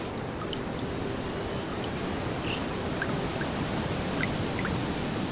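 Steady rainfall with scattered, distinct drops pattering over a continuous wash of water as a puddle grows and a small stream begins to flow. No voices, just an even, unbroken patter throughout.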